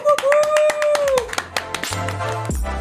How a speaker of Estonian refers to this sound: nii et pange käed kokku, tehke kõvasti lärmi, tere tulemast saatesse,